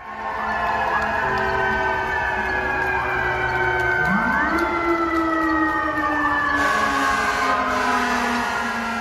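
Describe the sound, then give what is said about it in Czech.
A loud emergency vehicle siren wails continuously through the quiet streets of New York City during the COVID-19 epidemic, its pitch rising and falling in repeated sweeping cycles, with overlapping tones and a steady rumble of traffic underneath; no one speaks. “V utichlých ulicích tu znějí jen kostelní zvony, sirény a potlesk pro zdravotníky.”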